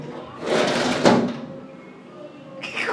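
A door swings shut with a brief scraping rush followed by a single sharp thud as it latches, with faint background murmur afterward.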